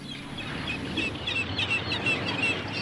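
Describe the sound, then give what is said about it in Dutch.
Gulls cry out on the deck of a ship on the North Sea in a string of short, shrill calls against a constant rush of wind and low mechanical rumble. “Want ik ben even lekker naar buiten gelopen om even uit te waaien hier eh, bij de meeuwen hier op het dek van de Nieuwtje Jacoba.”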